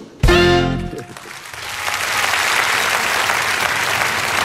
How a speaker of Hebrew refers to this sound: מחיאות הכפיים לשלמה וישינסקי, האורח שלנו כאן היום, בבוא שיר עברי.